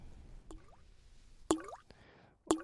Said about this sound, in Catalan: També ben els rellotges d'arena, els rellotges d'aigua